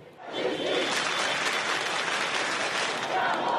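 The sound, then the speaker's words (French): A large crowd of marchers claps together in rhythm after a minute of silence in tribute to Naël, near the site of the incident, on a march toward the Hauts-de-Seine prefecture; a dense, loud and steady wall of clapping that begins abruptly and holds at an even level throughout, with faint voices mixed in. “À l'approche du lieu de l'incident, la foule respecte une minute de silence en hommage à Naël, puis applaudit en rythme avant de reprendre la marche.”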